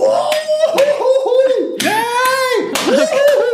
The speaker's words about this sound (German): Ja, da kann man ja ruhig mal klatschen. Also fand ich super.